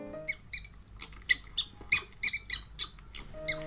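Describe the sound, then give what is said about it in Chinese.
A little mouse, which lives in a small hole, squeaks repeatedly in quick, high-pitched chirps, a dozen or so short bursts in an irregular rhythm, clear and fairly loud over a faint low hum. No one speaks. “它住在小小的洞里，想一想吧。答对了，它就是小老鼠。”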